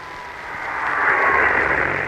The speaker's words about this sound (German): Im Augenblick kommt der Propellerwagen in die Kurve, um jetzt in die Gerade zu gehen, nimmt Richtung auf uns, auf unser Mikrofon. Das Geräusch des Wagens ist jetzt zu hören. Achtung!